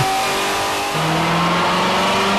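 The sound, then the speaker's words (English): A loud car engine rumbles and hums steadily, its pitch stepping up briefly partway through before settling back into a throaty drone. No one speaks. “Wow even when those things are sitting idle at a stoplight, mm-hmm. they sound sexy.”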